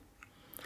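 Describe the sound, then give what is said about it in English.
A cat lapping Christmas tree water from the tree stand: a few soft, wet licking clicks in quick succession, faint and brief, with no voices. “That is our cat just slurping down Christmas tree water right now.”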